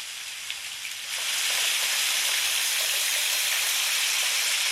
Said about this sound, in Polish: Ulewa